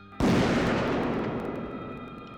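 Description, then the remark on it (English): A single loud gunshot cracks sharply, then a long reverberant tail rolls and slowly fades, echoing through an empty, derelict warehouse. No voices. “A gunshot echoing through the empty and derelict warehouse, which is a perfect metaphor for what Doyle has become.”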